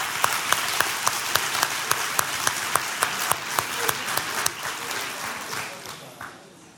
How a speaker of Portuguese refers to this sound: Porque quem sabe sobre casamento é aquele que está casado com a mesma mulher há 20 anos, 25 anos, 50 anos. Para você, um grande aplauso.